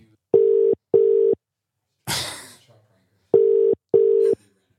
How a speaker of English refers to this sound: But if you felt comfortable enough, why don't we give that hero, your mum, a ring? We can give her a call.